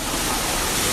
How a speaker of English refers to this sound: I think you can hear the waterfall in the background. Yes, this is where the cliff divers dive about uh, four stories down into a rocky pool of water. It's much cooler down here in the spray.